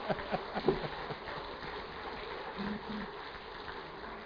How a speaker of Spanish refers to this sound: Pues damos un aplauso a Dios por este día.